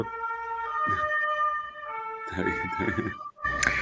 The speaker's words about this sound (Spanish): Entonces es cuando comienzo, perdón por la ambulancia, está pasando.